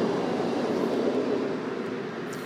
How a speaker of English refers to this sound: Ooh, that's a big train. It's a double decker train.